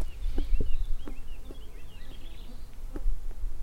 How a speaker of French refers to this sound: Là, on entend que ça, ça grouille. Ça butine euh, ouais. énormément. On entend les oiseaux aussi.